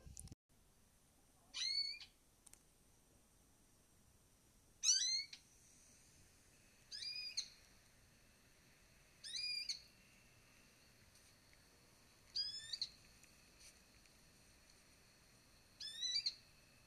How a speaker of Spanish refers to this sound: Si estás haciendo algo, Déjalo, y cierra tus ojos, abre tu mente y escucha este canto melodioso del trogón orejón.